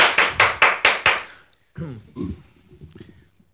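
hand clapping applause

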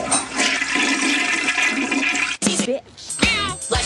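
toilet flushing

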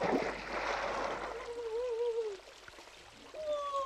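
splashing in water

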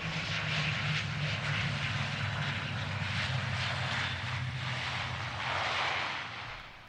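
airplane engine in flight

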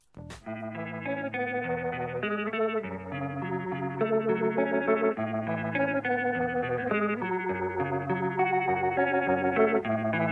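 rock song

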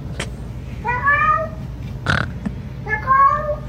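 cat vocalizing

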